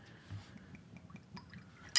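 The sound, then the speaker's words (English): A short, quiet pour of liquor into a shot glass, a soft trickling gurgle, ending with a brief bright clink of glass. “Well, we're not going to take a shot, but let's pour it in the shot glass right. in case we want to do um, the four roses next.”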